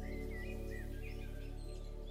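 Birds sing and chirp continuously in the open air along a sandy trail, several light whistling calls overlapping over a steady low background hum, with no one talking.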